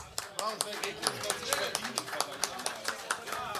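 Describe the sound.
A burst of audience applause, many hands clapping in quick, irregular sharp bursts at a steady moderate loudness, with voices talking and cheering underneath.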